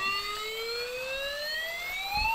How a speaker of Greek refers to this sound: Ακούσαμε πολλέ φορέ. Σιρήνα. Η μπαταρία κρατάει ακόμα, άρα σημαίνει ότι δεν έχει βάλει πολλά γκολ.